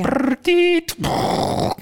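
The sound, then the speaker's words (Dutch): A voice mimics a dial-up modem connecting: a low buzzing drone, a steady nasal tone, a quick click, then a long rough hiss of static, all fairly loud and lasting under two seconds. “Eh, ik ken dial internet nog.”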